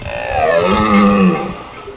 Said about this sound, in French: Eh bien, à la saison des amours, l'animal crie très fort pour se faire repérer par les biches. Et le son est réputé pour résonner à des kilomètres à la ronde.